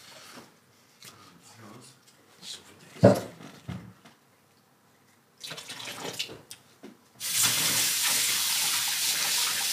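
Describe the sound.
Kabinett wine pours into a glass in a steady rushing stream through the last few seconds, after a stretch of voices talking and a sharp clink near the start.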